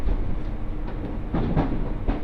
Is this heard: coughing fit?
no